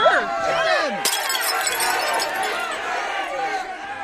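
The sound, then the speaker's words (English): A rowdy mob shouts and yells throughout while pelting people with bricks, with a sharp smashing crash about a second in, followed by clinking, shattering debris under the continuing clamor. “A mob of Rogers Parkers pelted the Westridgers with bricks.”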